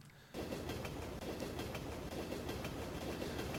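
The A78 train rolls past, a loud, steady rumble of wheels on rails broken by a regular clickety-clack of clicks, beginning abruptly after a brief quiet moment, with no voices.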